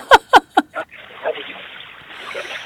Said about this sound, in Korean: 이야 정말 낙동강 투명 카약 탐사로 그 낙동강의 시원한 강물 소리를 전 세계에 계신 팟짱 애청자들께서 함께 듣고 계십니다.